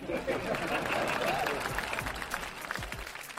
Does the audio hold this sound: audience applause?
yes